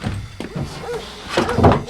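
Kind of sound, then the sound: household object, door flung open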